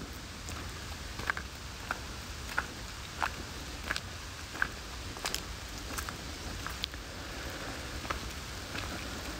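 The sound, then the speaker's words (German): Steady footsteps crunch along at a slow, even walking pace in a forest, one soft step after another over a hushed, airy outdoor background, with no one speaking. “Und ich erlaube mir meinen eigenen Rhythmus zu finden, auch im Zusammenhang mit meinen Schritten, ganz von selbst erlaube ich mir, meinem Körper, der Natur, mich zu synchronisieren.”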